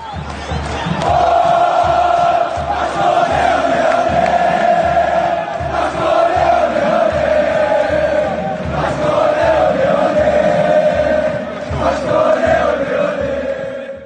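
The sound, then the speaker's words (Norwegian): A large crowd of Huracán fans chants in unison at a football match, a sustained, loud wall of voices with rhythmic pulses and swells, heard from within the stands for the whole stretch. “Så vi har uh, nå hørt uh, Hurrakan-publikummet”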